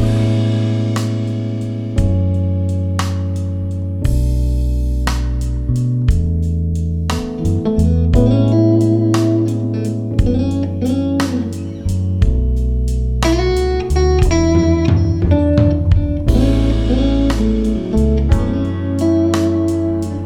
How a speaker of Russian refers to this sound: альбом рождественских песен